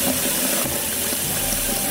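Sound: running water sound effect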